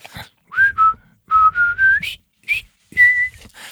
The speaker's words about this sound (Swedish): Eh, du hade ett annat exempel med, med musiken eh, till bron över eh, floden Kwai. Ja, stämmer. Ehm, hur, du visslade, hur, hur är den bron slingan? Över, ska vi försöka vissla den? då?